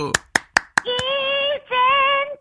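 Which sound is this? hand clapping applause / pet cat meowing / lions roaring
hand clapping applause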